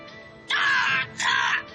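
A crow caws twice in quick succession, two harsh, rasping calls of about half a second each, loud, with no voices around them.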